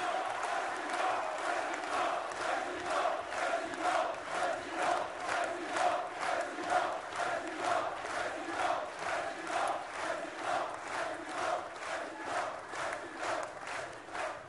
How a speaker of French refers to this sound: Un tonnerre d'applaudissements pour l'UPR et pour Monsieur Asselineau, le futur président de la France.